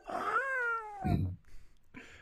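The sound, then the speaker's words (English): A single loud, drawn-out meow with a rising then falling pitch from a cat inside a box, followed by a brief rustle and a short muffled sound. “There's a cat inside the box.”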